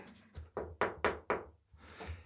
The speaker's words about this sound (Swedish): så, så knackar jag på här och kommer in.